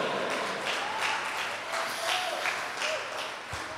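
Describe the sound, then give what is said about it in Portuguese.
An audience applauds in praise of God, steadily, a dense wash of many hands clapping at an even loudness throughout, with no voices standing out above it. “É ele que faz e aplauda este Deus extraordinário.”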